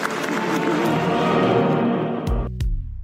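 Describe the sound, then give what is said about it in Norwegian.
An audience applauds the speakers at the end of a public conversation in a dense, steady wash of clapping for about two and a half seconds, then it cuts off as a short musical tone sweeps downward. “Skal vi gi dem en varm applaus?”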